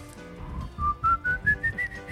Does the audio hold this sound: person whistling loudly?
yes